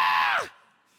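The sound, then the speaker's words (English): A human voice imitates a demon's shriek: one loud, piercing, strained cry lasting about half a second, sliding downward in pitch before cutting off into near silence. “It says, with shrieks, like, ah!”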